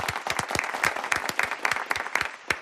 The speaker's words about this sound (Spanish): Porque un aplauso para Froilán de Borbón. Por favor